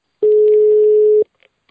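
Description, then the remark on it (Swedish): A single steady telephone ringing tone as a call is placed to someone on Gotland, a pure mid-pitched beep lasting about a second, heard clearly, followed by near silence with a few faint clicks. “Nu ringer vi”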